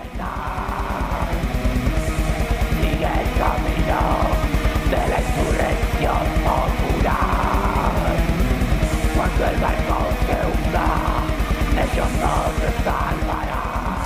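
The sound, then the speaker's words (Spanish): The title track of an underground four-song rock EP plays throughout: loud, raw and lo-fi, with fast pounding drums, a dense wall of distorted instruments, and harsh, screamed vocals cutting through near the front of the mix. “dale, estamos escuchando justo el, nombre que, el tema que le da nombre al, a este P.”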